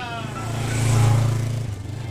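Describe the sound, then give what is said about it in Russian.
A motorcycle engine starts up after its rider has fallen, its low throbbing drone swelling louder through the middle, then easing off as the revs drop near the end. “Я упал, и типа мотоцикл завелся потом.”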